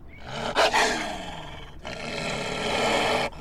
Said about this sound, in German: Wir blickten in furchterregende, hungrige Wolfsaugen. Vor uns stand ein Rudel Wölfe. Der Leitwolf war nur ein paar Schritte von uns entfernt.